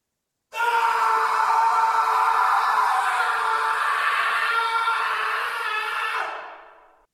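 A single long, loud human scream held steadily for about six seconds, strained, tapering off at the end, with no talking around it.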